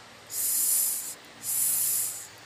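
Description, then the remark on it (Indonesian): A child, asked to imitate a snake, gives two long, sharp hissing breaths, each lasting close to a second with a short pause between, loud with no talking. “Sekarang coba tirukan suara ular.”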